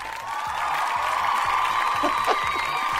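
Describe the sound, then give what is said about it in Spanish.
The studio audience of the show Noche en Pelotas applauds steadily as a guest is introduced, a dense, even wash of clapping that holds at a fairly loud level for a few seconds, with a faint tonal hum running underneath and no one speaking. “Lindo los aplausos, ¿eh?”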